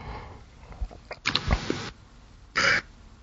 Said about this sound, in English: over here yawning, wasting valuable airspace.